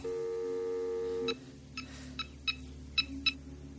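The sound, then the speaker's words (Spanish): In a room, a telephone is picked up: a steady dial tone hums briefly, then cuts off as a number is dialed, six short, crisp key beeps in an uneven rhythm, clear with no one speaking. “Emily descuelga el teléfono y marca un número”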